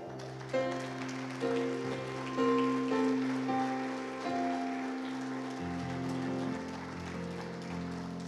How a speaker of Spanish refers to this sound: Ahí va un aplauso.